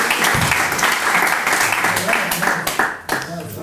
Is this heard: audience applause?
yes